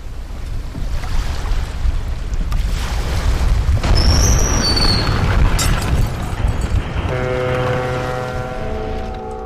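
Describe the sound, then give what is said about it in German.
A boat-sinking sound effect: loud rushing, churning water and deep rumble, broken by high creaks and squeals midway, ending with a long, low groaning tone as the water roar fades. “Okay, das Boot ist untergegangen, wie auch immer.”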